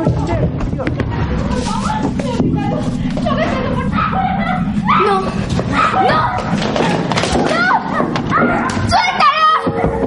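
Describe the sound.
Several voices scream and shout over one another, loud, with occasional thuds and scuffling sounds beneath the commotion throughout.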